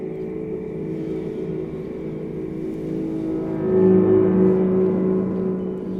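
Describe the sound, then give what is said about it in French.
A red deer stag bellows during the rut, its mating season lasting about a month from mid-September to mid-October, in a deep, drawn-out, rumbling roar that swells louder partway through, heard alone with no voices. “le brame, c'est juste à certaines périodes de l'année. Le cerf ne produit pas ce son toute l'année.”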